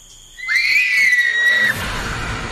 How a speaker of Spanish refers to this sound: De la hacienda salían corriendo despavoridas las mujeres. Parecía que habían visto al mismísimo diablo. ¿Qué pasa? ¿Eh? ¿Por qué tanto grito?